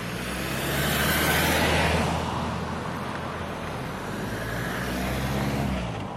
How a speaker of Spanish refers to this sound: Y aquí estoy, en Les Somme, Ile-de-France. Uy, dos carros al tiempo, dos coches, simultáneamente en la misma calle.